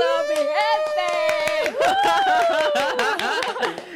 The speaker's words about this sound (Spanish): ¿Dónde están los aplausos